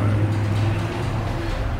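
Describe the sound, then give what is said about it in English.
A stolen car's engine rumbles steadily as the vehicle drives off, a constant low drone with road noise lasting under two seconds and no voices. “And our heroes are off after the Mosquito Gang in their stolen car.”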